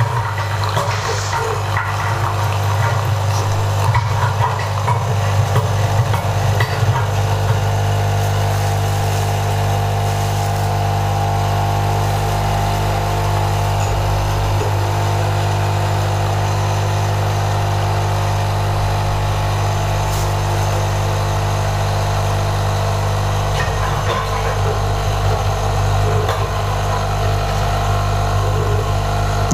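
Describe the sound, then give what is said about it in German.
A coffee pad machine runs steadily with a loud, low mechanical hum and pump drone, a constant buzzing tone with faint gurgling water sounds throughout, no voices. “Und wir können wieder Kaffeepads hier reinmachen.”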